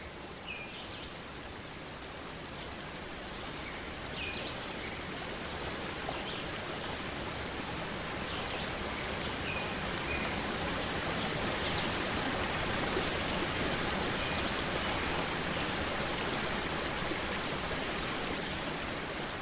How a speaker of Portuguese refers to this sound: misturada ao som do vento nas árvores, percebemos um riacho e gradualmente nos aproximamos dele.